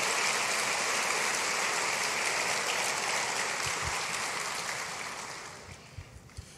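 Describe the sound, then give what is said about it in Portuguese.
An audience applauds Jesus steadily while the preacher takes a sip of water, a dense wash of clapping that holds for several seconds and then tapers off toward the end, with no voices over it. “Aplaude Jesus para tomar um gole d'água.”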